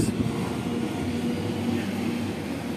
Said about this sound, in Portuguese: Espero honestamente que vocês não estejam escutando esse trator. Sim. Um trator tá passando aqui na minha rua.